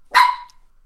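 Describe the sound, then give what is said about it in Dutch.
A single sharp, high-pitched bark from a small chihuahua, fairly loud, cutting off quickly and followed by quiet. “Ik, ik vond het een instemmende blaf, in alle eerlijkheid.”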